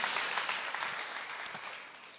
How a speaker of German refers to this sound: Ähm, erstmal machen wir Applaus, danke, ja, dass ihr das äh, als ihr habt. Ihr dürft gerne wieder abgehen.